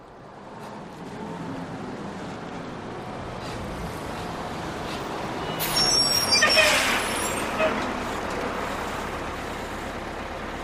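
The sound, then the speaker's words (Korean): A bus arriving in Pokhara rumbles up in steady road noise, then lets out a sharp hiss of air brakes around midway before the engine idles on. Faint voices murmur in the background. “버스가 왔다.”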